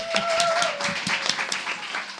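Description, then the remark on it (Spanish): A short burst of applause for a contestant's correct quiz answer, many hands clapping in quick, irregular claps at a steady moderate loudness, with a faint thin tone lingering briefly underneath and no talking. “Un aplauso, por favor.”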